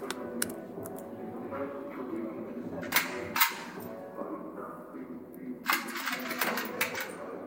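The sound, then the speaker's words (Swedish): A recording played by the prosecutor in a Swedish court: a small metallic clink of the last cartridge ejected from a gun comes among a few sharp, brief cracks, set against a steady, muffled background murmur throughout. “Så hör man som sagt ett litet klink och det här kommer också ges in till tingsrätten.”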